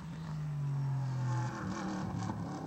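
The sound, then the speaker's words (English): A loud race car engine holds a steady droning note, then drops off as the car brakes around the 300 marker heading into turn 10 and downshifts, before revving back up with wavering, rising tones. No voices. “Heading down to turn 10 on the brakes around about the 300 marker.”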